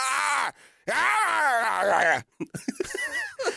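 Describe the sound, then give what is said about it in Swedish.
A person growls and snarls in a strained, groaning voice, mimicking an aggressive wolf, with two sustained bursts followed by short choppy grunts. “Så låter de kanske.”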